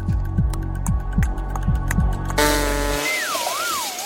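A synthetic game-show style wrong-answer sound effect, played after an incorrect answer to a quiz question: a buzzy, descending low tone sequence followed by a harsh noisy burst and a warbling, wavering pitch, loud with no talking.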